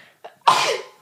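A single loud sneeze: a short breathy intake, then a sudden explosive burst of air that tapers off over about half a second. No one is talking.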